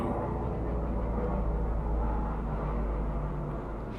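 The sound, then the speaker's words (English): A low, heavy engine roar rumbles steadily for a few seconds as an airplane passes close overhead near an airport, with deep bass and no voices. “Do you ever hear like an airplane going by and it sounds like a little too close and you wonder if like this is the day that like an airplane will crash into your house?”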